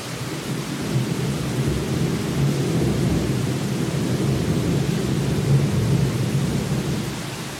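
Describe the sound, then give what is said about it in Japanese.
Steady, heavy rain pours down with a deep, continuous rumble of thunder rolling underneath, a dense wash of storm noise that stays loud and even throughout, with no voices. “雷の音がと雨となんだろうなんだろうこれクライマックスなのかな”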